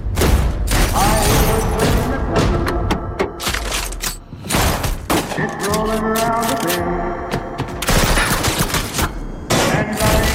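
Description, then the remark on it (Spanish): A loud fusillade of gunfire as unidentified assailants rob an armored truck: dense, irregular volleys of sharp shots crackling almost nonstop for ten seconds, with a brief lull midway and raised voices faintly underneath. “En su camión blindado es el responsable de mover cientos de millones de dólares a través de las calles de Los Ángeles cada semana cuando unos asaltantes sin identificar atracan su furgón blindado y acaba tiros con la vida de todos ellos.”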